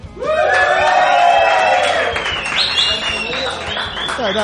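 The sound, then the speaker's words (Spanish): A loud studio audience packing the bar de Blas erupts in sustained cheering and shouting over a dense wash of applause, voices whooping and calling out for several seconds without letting up. “Con su poquito de saber estar y su pizquita de savoir-faire, un público que practica el juego limpio pero que aplaude cuando toca y cuando no también, y que grita si hace falta.”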